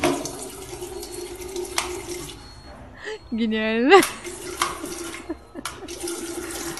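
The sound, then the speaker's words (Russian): Steady running water flows from a tap fed by an electric pump at a workplace, to fill a kettle for tea, fairly loud, with a brief rising electronic whine in the middle and a voice speaking over it. “я думаю, там просто электрический насос стоит, который воду качает через этот кран.”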